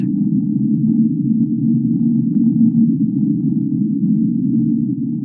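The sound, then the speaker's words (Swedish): An underwater sound of unknown origin, known as the whistle, recorded on a hydrophone: a steady, droning low tone that holds loud and unbroken for several seconds, with a faint higher overtone and no voices. “Sen har vi ett annat ljud som kallas för whistle och den låter då så här.”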